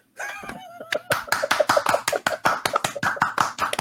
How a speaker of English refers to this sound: golf clap, golf clap.